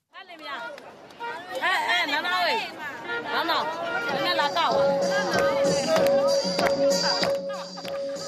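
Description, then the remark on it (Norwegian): A lively street party crowd of several hundred red-clad supporters outside the old British-built railway station in Yangon during an election campaign, many voices shouting and cheering together, with a sustained whistle-like tone entering partway through and holding over the loud, continuous hubbub. “Det er en gatefest her nå, og det er ikke vanskelig å høre hvem de heier på.”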